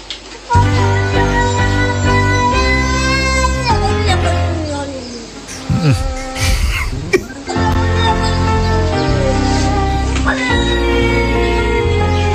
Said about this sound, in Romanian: s-a gândit să și compună o armonie în, în jurul mieunatului și scuipatului nervos al acestei pisici